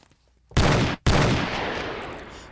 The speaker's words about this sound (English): Hold on. Was, let me give myself a gunshot. I was about to get shot.